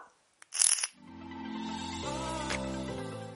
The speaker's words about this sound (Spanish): Vamos a dar una calada.